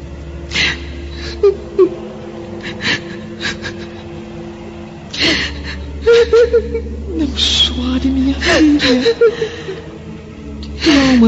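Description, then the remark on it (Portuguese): A young woman cries alone in her bed: shaky gasping breaths and wavering, whimpering sobs come in uneven bursts over a low steady hum, rising toward the end. “No entanto, Lívia, ao passar pela porta do aposento da filha, percebe a pobre jovem chorando, sozinha em seu leito, abandonada novamente pelo marido adúltero.”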